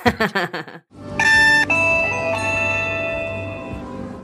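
A QR code scanner confirmation beep as a phone or pass is held to it: bright electronic chime tones ring out three times in quick succession and linger over a noisy, crowded background, following a short burst of voice-like sounds.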